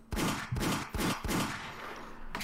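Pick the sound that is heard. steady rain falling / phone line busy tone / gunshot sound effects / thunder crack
gunshot sound effects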